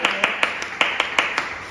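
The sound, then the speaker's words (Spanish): Brief applause for a sponsor who is a makeup artist: about nine sharp, evenly spaced claps in a quick steady rhythm, moderately loud over a soft background hiss. “Un aplauso, por favor, a Leticia Docal.”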